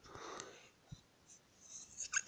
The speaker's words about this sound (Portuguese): Vou espirrar. Espirrei. Vou espirrar de novo.